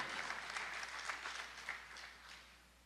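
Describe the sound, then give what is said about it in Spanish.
An audience in Morristown claps steadily in a dense, continuous wash of applause that holds for a few seconds, then gradually thins and fades out near the end. “Morristown debe aplaudir. Allá atrás deben aplaudir más fuerte.”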